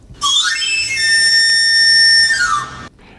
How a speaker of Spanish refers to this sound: Eso deja de ser música y se convierte es el afilador es el afilador o sea es como es como una como un no, solamente como una palabra como una oración entera quiere decir ya está aquí el afilador está delante de tu casa